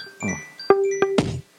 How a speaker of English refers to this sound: That's my phone going off, and I couldn't even hear it because this. I apologize to every listener. Has that been going off for long? It, okay. it, it, sounded like a part of the synthesizer.